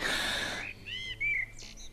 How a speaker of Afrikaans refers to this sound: Wat 'n heerlike oggend. Ah, is dit nie wonderlik om op 'n plek te bly waar die voëls jou elke dag wakker sing nie?